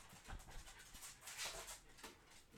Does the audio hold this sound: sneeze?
no